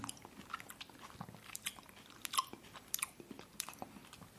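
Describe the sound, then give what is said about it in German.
Wet chewing and lip-smacking as someone eats, with irregular crisp clicks and bites every fraction of a second. Fairly quiet, with no talking. “so ein Schmatzen, ne?”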